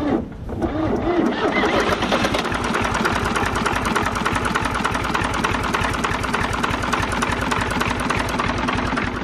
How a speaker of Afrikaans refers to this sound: Maar die trekker uh, het ek uh, tweedehands gekoop en hy loop al saam met my raak oud saam met my. Ek het hom seker al oor die 20 jaar al.